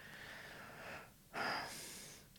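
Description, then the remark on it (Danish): Snuffly, congested breathing through a nose blocked with mucus during a belly-breathing exercise: a long hissing exhale, a short pause, then a sharper sniffing inhale with a faint whistling edge, with no talking. “Man kan rigtig høre, at jeg trækker vejret.”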